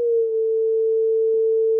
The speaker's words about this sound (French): Eh, un oscillateur. C'est cool, non?